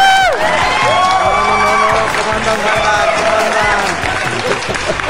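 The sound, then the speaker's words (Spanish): A loud, sustained burst of crowd applause and cheering in Caguas, with whoops and shouted voices rising over steady clapping, continuous for several seconds as a guest is introduced. “Anexos, aplausos, chingada madre.”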